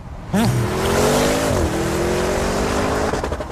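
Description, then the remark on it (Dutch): A car engine roars to life and revs loudly, its pitch climbing, dipping briefly, then holding a strong, steady growl for several seconds with no talking. “klinkt niet eens als een SUV, hè?”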